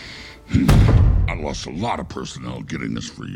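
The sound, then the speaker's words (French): A voice imitates a creature sniffing: a sharp, breathy snort, followed by a run of rough, voiced huffs and growly breaths with no clear words. “On le faisait renifler comme, comme ça, avec des gros grognements de lions mais qu'il a fallu ajuster complètement pile poil dans ses, dans ses phrases et dans ses respirations”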